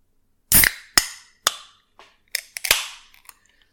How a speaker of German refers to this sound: Also ich habe mir jetzt hier eine Cola aufgemacht